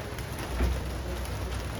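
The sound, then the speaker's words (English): Heavy rain pours straight down on Calle Colima in the Roma neighborhood of Mexico City, a steady, dense hiss that fills the whole clip, with a faint low rumble swelling briefly partway through. No voices. “It was raining straight down.”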